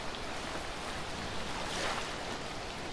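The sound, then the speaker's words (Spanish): A continuous roar of rough, stormy sea waves with wind around a boat taking on water, steady and fairly loud throughout, rising into a brief surge partway through, with no voices. “Miedo a la muerte, miedo a morir de ser tragado por el mar embravecido.”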